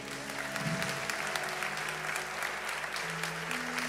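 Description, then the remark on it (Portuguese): Sustained applause from a church audience applauding Jesus, dense and steady clapping throughout, with a low sustained tone humming underneath. “Aplauda Jesus, igreja.”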